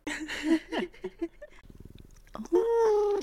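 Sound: domestic cat purring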